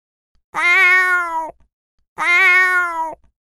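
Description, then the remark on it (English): Two drawn-out, high meows from six newborn kittens, some black and some white, each about a second long with a short pause between, loud with no other sounds around them. “Look, Six little cats have been born.”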